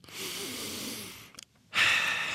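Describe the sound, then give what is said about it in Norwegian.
Heavy breathing: a long, airy exhale, a short pause with a faint catch, then a strong, rasping inhale. No talking. “Men menn gråter ikke? De puster tungt.”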